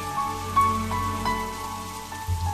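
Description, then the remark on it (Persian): Steady rain patters on a hard surface, with a few sharper drips standing out from the continuous wash. It sounds moderately loud, with no voices. “هنگام بارش باران پنجره را می گشاید و با تمام وجود گوش می کند باران را”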